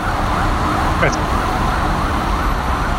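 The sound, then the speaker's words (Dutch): An emergency siren wails in a steady rising-and-falling pattern over the constant roar of heavy traffic on Canal Street, a busy street in New York, on a fine 21-degree day, with a brief sharper chirp partway through and no talking. “Ik vond die, die sirenes inderdaad wel gaaf.”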